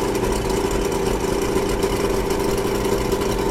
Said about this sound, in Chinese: 甲州街道弥漫着冬日的气息，我的二手汽车连引擎也难以发动起来了。